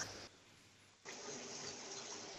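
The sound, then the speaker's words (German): Hot water gushes loudly from a tap as it is run to top up, a broad, steady hiss, briefly dropping for under a second before surging back at full strength, with no voices. “Warte mal ganz kurz, ich muss mal ganz kurz heißes Wasser nachlaufen lassen.”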